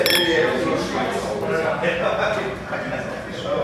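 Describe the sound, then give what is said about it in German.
Wine glasses clink together in a quick, bright toast, a few light chimes, with people talking over and around them. “Ähm, also, zum Prost.”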